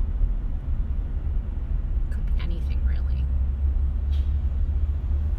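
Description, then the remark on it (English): Slow, heavy traffic on the 401 highway with many trucks, big equipment vehicles and a bus makes a constant deep rumble, with a few brief hissing bursts like air brakes. A person speaks briefly over the drone. “Traffic on the 401 highway right now is slow and intense. As always, but especially right now. Um, a lot of trucks, a lot of big equipment, vehicles, follows you, bus, Safeway tour bus.”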